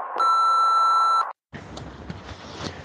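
A single loud, steady voicemail signal tone from an automatic answering announcement holds one high pitch for about a second, then cuts off into a brief silence followed by low, crackly background noise.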